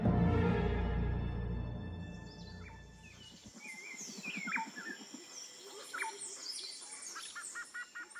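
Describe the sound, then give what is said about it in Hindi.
Several birds chirp and tweet sweetly in the morning in quick, overlapping calls, after a low humming tone fades out in the first few seconds; no one speaks. “अगले दिन की सुबह हुई चिड़ियों की मीठी आवाज से सबकी नींद खुली ताजी हवा और नेचर की मधुर आवाजें”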